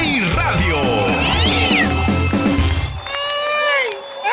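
cat meowing

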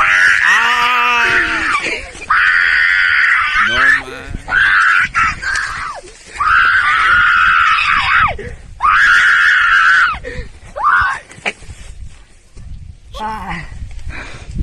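man screaming

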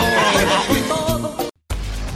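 horse neighing

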